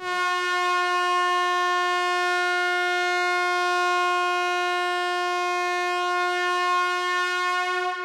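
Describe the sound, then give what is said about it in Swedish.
A single long, steady, loud blast of a ship's foghorn, holding one rich, harmonic tone for about eight seconds without wavering before cutting off. “det är inte för inte som sjöfarten jobbar med mistlur”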